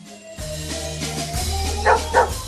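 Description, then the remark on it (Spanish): A dog barks twice in quick succession near the end, fairly loud and close, over a steady low droning musical backdrop with no talking. “Un perro enorme, de tres cabezas y cola de serpiente hace las delicias del público con pruebas nunca vistas.”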